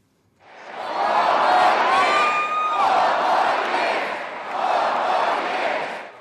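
A large crowd at a US presidential campaign rally on the last day of the election campaign chants and cheers in loud, rhythmic waves, roughly three surges over six seconds, with one voice rising into a sustained high whoop above the roar.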